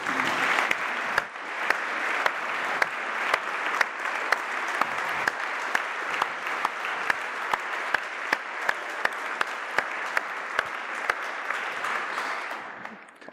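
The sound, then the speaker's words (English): A round of applause from a church audience welcoming their new vicar, dense steady clapping with sharp individual claps standing out, sustained at an even level for about thirteen seconds before tapering slightly at the end. “Should we give him another round of applause?”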